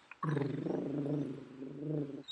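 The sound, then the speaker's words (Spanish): A person imitates a rattling breath that sounds like snoring, coming from the chest and nasal passages: one long, steady, rumbling nasal-throat sound lasting about two seconds, low-pitched and fairly loud, with a brief click before it starts. “se ronquió así.”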